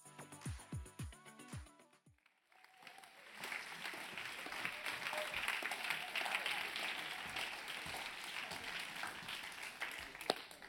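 A crowd at ICF Bern bursts into sustained applause as a speaker goes onto the stage, dense clapping rising after a brief lull and holding steady for several seconds, preceded by a few low thumping sounds at the start.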